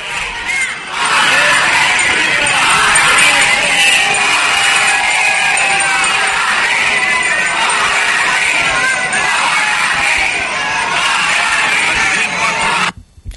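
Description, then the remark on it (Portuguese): A large protest crowd outside the Legislative Assembly, held back by a riot police and Brigada Militar cordon as deputies enter, shouts chants such as "fora Leite" and "retira" in a loud, sustained roar, voices blending into a dense rhythmic din before cutting off abruptly at the end. “No fundo, a gente escuta ah, os gritos de fora leite, de retira, ou tem um cordão do choque e da Brigada Militar, e os deputados estão entrando no plenário.”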